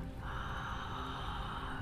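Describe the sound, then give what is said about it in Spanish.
A single long, steady deep breath drawn in, airy and sustained for nearly two seconds, with no talking, taken as part of a breathing exercise. “Respiración Maya Solar el regalo que Kinich Ahau nos ha heredado”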